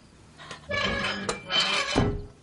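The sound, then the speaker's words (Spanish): Rustling and shuffling as bags are stuffed into a safe, with a couple of sharp knocks, ending in a solid thud of the heavy safe door swinging shut. No voices. “Guarda dentro las bolsas y cierra la puerta.”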